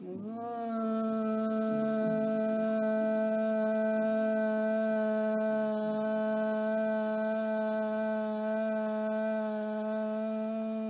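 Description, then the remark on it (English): After a deep breath in, a deep, steady chanted "Om" is held as one long unbroken tone for about ten seconds, loud, with a rich humming resonance and no other talking. “Deep breath in for the sound of Om.”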